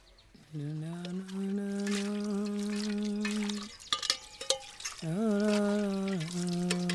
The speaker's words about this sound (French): Eh bien, vous faites la vaisselle avec une vitesse impressionnante. Vous essayez de battre un record